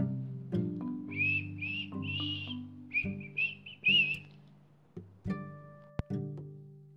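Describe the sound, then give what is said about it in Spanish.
Soft whistling of a short, wandering tune in several brief phrases, heard over low sustained tones, followed by a few sharp plucked or struck notes near the end. “Dicen que salió callado y se fue silbando bajito como encerrado en sus pensamientos.”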